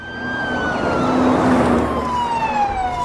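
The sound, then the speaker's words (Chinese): A police car siren from police cars heading out at night wails loudly and continuously, its high tone sliding slowly downward over a low engine rumble, with no voices present. “几个人觉得警车连夜出动，肯定和小怪的案子有关，赶紧跟上。”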